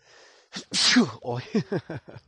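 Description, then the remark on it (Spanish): A single loud sneeze bursts out after a short breathy inhale, followed by a few quick voiced syllables as someone starts talking again. “A ver, que los estornudos vienen de dos...”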